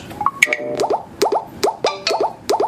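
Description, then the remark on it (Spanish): An app's audio cue plays alone, signaling that a label is centered directly ahead: short, bright electronic plops with a quick upward pitch bend, repeating about every half second in a steady loop, clear. “Sonido centrado, ¿vale?”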